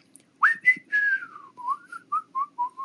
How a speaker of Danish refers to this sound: Eller folk, der går rundt og fløjter. Det gør pedeller meget, gør de ikke det? Pedeller, som går rundt på skoler og sådan noget, de fløjter meget.